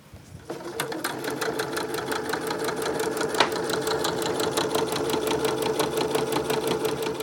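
A sewing machine starts up and runs steadily at close range, its needle clattering in a fast, even rhythm over a low motor hum, with no talking.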